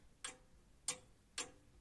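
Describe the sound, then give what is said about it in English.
Three sharp, evenly spaced, crisp ticks of a grandfather clock, sounding alone with no voices. “You can hear much louder the grandfather clock.”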